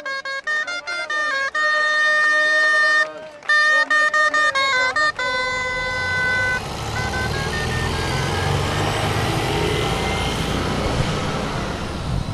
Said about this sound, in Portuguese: Chego de autocarro.